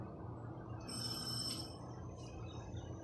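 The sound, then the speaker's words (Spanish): A doorbell rings once with a bright, high-pitched electronic tone lasting under a second, followed by a short fainter chime, over a steady low hum. “Le iban a hacer una fiesta sorpresa, pero él no sabía cuando sonó el timbre.”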